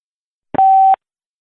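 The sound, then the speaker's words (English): A single steady electronic beep, a pure telephone-line tone lasting under half a second, signaling that a phone caller is connected to the host, preceded by a brief click and heard alone in silence. “A beeping noise will indicate when you are on the show with the host.”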